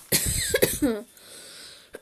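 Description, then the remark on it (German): A forceful burst of coughing lasting about a second, a few rough harsh hacks running together, followed by quiet background tone and a faint click near the end. “Wenn ich so ein bisschen übertreibe beim Husten, dann ist mein Hals so gefickt.”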